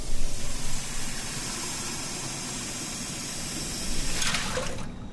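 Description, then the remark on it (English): Nine cups of water pour steadily into a pot for several seconds, to be brought to a boil for making a big vat of coffee, a constant rushing splash, its tone shifting slightly near the end as the flow changes. No one speaks. “Nine cups of water, bring it to a boil. So we're going to do that.”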